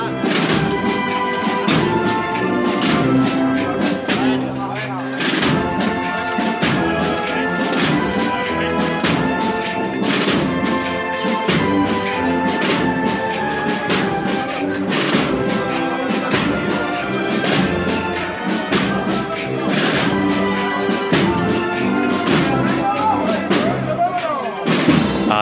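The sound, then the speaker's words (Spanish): The swinging fringes of a Virgin's procession float knock and clink in a steady, rhythmic pattern as it moves along Calle Castilla, sharp taps repeating throughout over loud, sustained brass band music. “Mira cómo suenan las bambalinas.”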